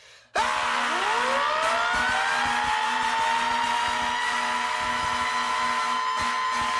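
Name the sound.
emergency vehicle siren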